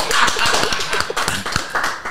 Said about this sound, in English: Okay, so yeah, let's clap.